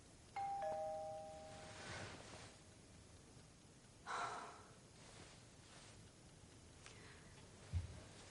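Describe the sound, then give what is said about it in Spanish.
A two-tone doorbell chime at a door rings once suddenly at night, a clear ding-dong that fades out, followed by quiet with soft breathing and faint rustling. “cuando de repente suena el timbre de la puerta.”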